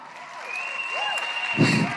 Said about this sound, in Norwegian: Det er applaus! Så bra, altså.